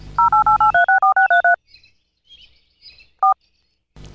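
signal or alarm, telephone keypad dialing tones

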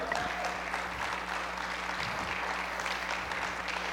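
crowd, audience applause

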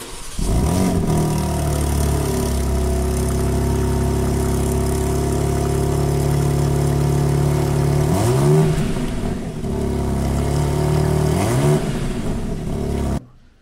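vehicle, sports car engine revving

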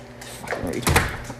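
household object, door being opened

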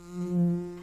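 insect, bee buzzing

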